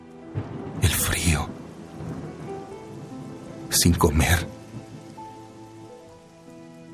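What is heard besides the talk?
rain falling with thunder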